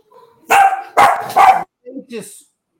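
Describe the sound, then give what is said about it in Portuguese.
A dog barks three times in quick succession, loudly, followed by a couple of softer, shorter sounds as it trails off. “Não foram os cachorros aqui que latiram.”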